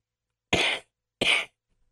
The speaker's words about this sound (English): Sorry, that was my mocking cough.